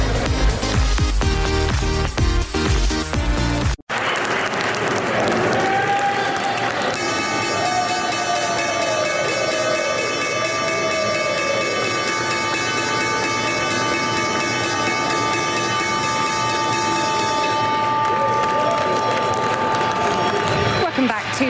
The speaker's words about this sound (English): Thursday's opening bell there the New York Stock Exchange